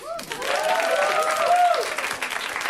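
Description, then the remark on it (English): An audience at a live comedy show breaks into steady, dense applause that holds for a few seconds, with scattered cheers and whoops rising above the clapping before it begins to thin out. “Let's hear it for them.”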